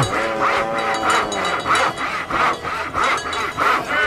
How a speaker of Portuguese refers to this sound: Que boi é esse? Passa o serrote nele, vai. Calma, boi, calma!